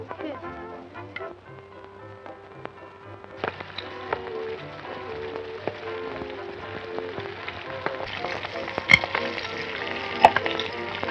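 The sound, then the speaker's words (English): Ham and eggs sizzle and crackle steadily in a frying pan, moderately loud, growing busier partway through with a few sharp pops and clinks of a utensil. “Wait, that kind of mess them up in a frying pan.”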